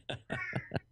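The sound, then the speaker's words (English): A male cat meows in a quick series of short, insistent cries, four or five clipped calls in a row, with no talking over them. “He meows all the time. He needs to shut up every so often.”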